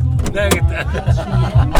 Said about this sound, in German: Ist die Tür richtig zu. Jetzt.